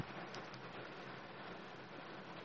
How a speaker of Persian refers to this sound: بارون خیلی شدیدی هم داره میاد شاید صداش متوجه بشید